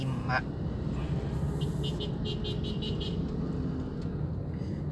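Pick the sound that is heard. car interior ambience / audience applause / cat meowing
car interior ambience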